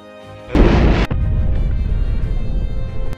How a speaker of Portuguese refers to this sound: Tu, quando tá dando mortal para trás, tu só escuta a explosão, ela te empurra até quase a porta do, do templo.